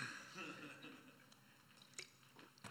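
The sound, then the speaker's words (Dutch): Someone takes a sip of water: soft wet slurps and small liquid clicks, a few brief gulps spread over a couple of seconds, quiet and without speech. “Ik neem even een slokje water.”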